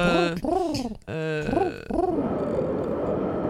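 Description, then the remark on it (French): A voice imitates a little wind blowing in the town of Poméville with a few rising-and-falling hooting "whooo" tones, then trails into a steady breathy hiss that gusts on for the last second and a half. “On entend le Val derrière. C'est ça, il y a un petit peu de vent, hein, donc tous les gens sont chez eux.”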